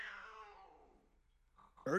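A single drawn-out cat meow with a falling pitch fades away, followed by a short pause before a person starts talking at the very end.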